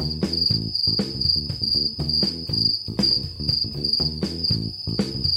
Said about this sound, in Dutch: Inderdaad, de krekels. Ja. Ze zijn weer terug.